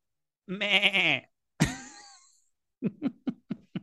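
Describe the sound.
A person imitates a sheep as the first line of the film Irregular by Diogo Morgado: a drawn-out, quavering bleat, then a sharper falling cry, then a quick run of five short choppy bleats, clear with no talking.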